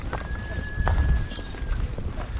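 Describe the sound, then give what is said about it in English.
A few horses' hooves clop along the Kora pilgrim trail around a mountain, travelling with nomads and 25 yaks, in an uneven, shuffling rhythm, with a steady thin whistling tone and outdoor rumble underneath. “We begin the Kora, the pilgrim's path, clockwise around the mountain, falling in on the trail with some nomads, 25 yaks, and a few horses.”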